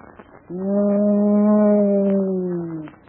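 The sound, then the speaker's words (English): A man's voice imitates a ghostly wind moan: one long, low, steady wail held for over two seconds, sagging slightly in pitch as it fades at the end. “I mean moan like the wind. I want you to wail, sound like a ghost, like something spooky.”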